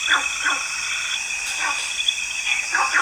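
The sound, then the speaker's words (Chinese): Günther's frog gives short, dog-like barking calls, about five abrupt yaps spaced irregularly, some in quick pairs, over a steady high-pitched hum of insects. “贡德式赤蛙。”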